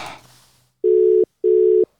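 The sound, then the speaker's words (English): A brief rustling burst fades out, then a telephone line tone sounds twice as a call is placed to a girl: two steady, medium-pitched electronic beeps of equal length separated by a short pause, clear and fairly loud, with no voices. “I'm gonna phone a girl and I'm gonna call a cool girl”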